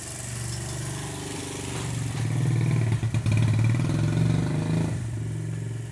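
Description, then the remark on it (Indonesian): A motorcycle with a loud, raspy exhaust revs at night, its rumbling engine swelling louder through the middle before easing back slightly, with no voices over it. “kenapa sih malam-malam kayak knalpot berisik gitu”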